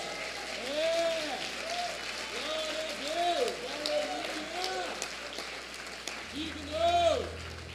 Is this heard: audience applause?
yes